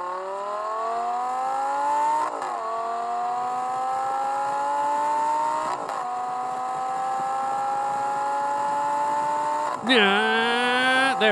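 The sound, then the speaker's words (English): A car engine revs up in a steadily rising whine, dropping in pitch at each gear change, about three shifts in all, then climbing again, loud and continuous throughout. “You hear that? That's all the gear changing.”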